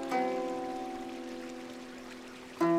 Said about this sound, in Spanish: que parece sincronizarse con la armonía del agua que fluye por este río.